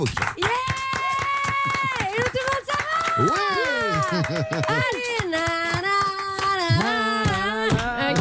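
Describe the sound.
A studio audience applauds steadily for several seconds, the clapping mixed with loud whoops and excited cheering voices that rise and fall in pitch, and a man speaking over it.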